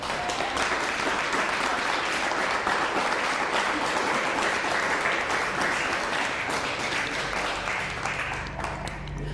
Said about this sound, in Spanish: A ver, dale un fuerte aplauso.